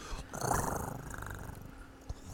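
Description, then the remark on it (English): A person makes a rolling, purring sound with their mouth, an attempted drum roll that comes out like a cat purring, steady and fluttering for a couple of seconds, fairly quiet. “oh, that just sounded like you were purring like a little kitty, and that's still not drum.”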